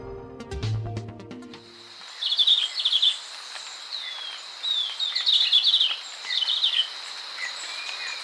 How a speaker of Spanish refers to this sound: El verderón castaño que oímos trinar no llega a medir más de 12 centímetros tiene la cabeza rojiza y el cuerpo y las alas de color oliva claro. Se puede observar en la serranía de Perijá, en los límites entre Colombia y Venezuela.